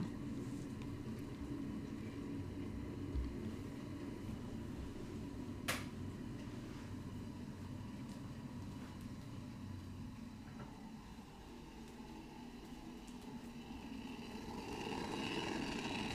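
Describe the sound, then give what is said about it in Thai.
Water boils hard in a kettle, heated for making mint tea, a steady, dense bubbling roar that runs without a break, fairly loud, swelling slightly toward the end. No one speaks. “เดี๋ยวสักครู่นะคะขอไปหยิบน้ำร้อนก่อน จากที่ทุกคนน่าจะได้ยินเสียงตอนนี้คือน้ำร้อนกำลังแบบปุดปุดปุดปุดปุดปุดอย่างจริงจัง”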